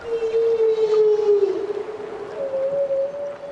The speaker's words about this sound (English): Humpback whales are feeding and calling. And nearby, a harbor porpoise chimes in, as well as a pod of orcas. And the rumble of a huge chunk of ice breaking off a glacier and causing large waves.